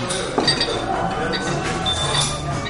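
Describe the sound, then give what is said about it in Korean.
Stir-frying and deep-frying in a busy Chinese restaurant kitchen in Alhambra, near Los Angeles, USA: a steady, dense sizzling hiss with frequent clinks of metal utensils and dishes, and faint voices murmuring in the background. “볶고 튀기는 요리 소리와 맛있는 냄새가 가게 안을 가득 메웁니다.”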